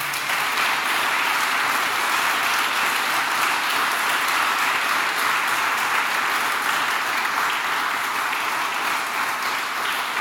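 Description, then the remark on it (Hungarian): Steady audience applause for the two opposition candidates after a debate for Budapest's district 1 at Partizán lasts the full ten seconds, a dense, even wash of many hands clapping at a fairly loud, constant level with no talking over it. “Egy nagy tapsot szeretnék kérni mindkét képviselőt úrnak.”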